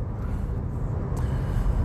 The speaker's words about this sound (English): Good afternoon. It's Friday, it's 4:31. I'm in the car on my way to Landmark.